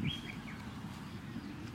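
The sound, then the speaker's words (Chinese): A duck quacks in a short burst of nasal calls, with a thin high chirping tone at the start and a steady low rumble running underneath throughout. “呱呱呱！ 原来是仗义勇为的鸭太太吓走了狐狸。”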